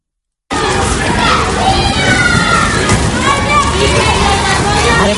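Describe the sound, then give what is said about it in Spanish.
Busy schoolyard din of many children playing at once, with overlapping shouts, chatter and high-pitched calls forming a steady, loud babble that starts abruptly and continues throughout. “de juegos, de risas, de charletas, de alguna que otra discusión entre amigos, los profesores lidian también cada día en los patios y en las aulas de los colegios con esto.”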